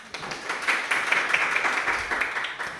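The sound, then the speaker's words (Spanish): An audience in Lima applauds to welcome a special guest, with a steady, dense patter of many hands clapping for about three seconds. It holds at an even, moderate loudness and then tapers slightly, with no voices over it. “para quien le pido un aplauso, por favor.”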